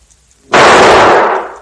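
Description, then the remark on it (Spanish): A single gunshot bursts out of near silence during a television recording, a TV show presenter shooting herself in the head: a sudden, loud, harsh blast that holds for about a second before slowly fading. Nobody speaks. “En una grabación televisiva, la presentadora de un programa se suicida de un disparo en la cabeza.”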